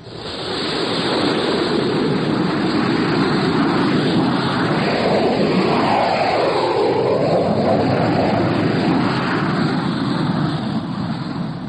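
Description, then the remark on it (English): A loud, sustained jet roar fills the whole stretch, a thick rushing wall of engine noise with a slight rising and falling sweep as six jet fighters power up and take off from Hank Field, no voices. “Six jet fighters were taking off from Hank Field”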